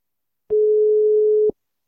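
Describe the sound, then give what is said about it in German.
A telephone ringing tone during a repeated phone call attempt: one steady, mid-pitched electronic tone lasting about a second, starting and stopping with soft clicks, heard on its own without any talking. “Ich weiß mir gar nicht, dass es anläutet.”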